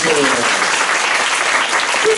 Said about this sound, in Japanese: あの日本武道館でやってるおかげで、あのギャラリーがたくさん、ちょっとちょっと少ない拍手の数、大体そんなもんだった。